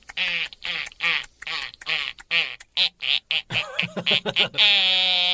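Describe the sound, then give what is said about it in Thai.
A house gecko chirps in a loud series of about a dozen sharp, nasal clicks that quicken toward the end at the front of a library, followed by a sustained creaking squeal of the library door being opened with difficulty. “ไม่รู้จะฟังเสียงประตู หรือจะฟังเสียงจิ้งจก ทักดีนะนี่จะทักทำไมเราเห็นไหมประตูเปิดไม่ค่อยออกเลยเนี่ย”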